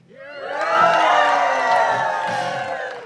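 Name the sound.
audience cheering and whooping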